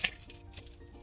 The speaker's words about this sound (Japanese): 家の鍵がついたマスコットを、ブンブンして。タリタリしてる音を楽しんでますね。